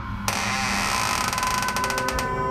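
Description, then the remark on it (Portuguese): Heavy barn doors grind and creak open with a drawn-out, ratcheting scrape that pulses in quick clicks toward the end, steady, with no voices. “Você corre, abre.”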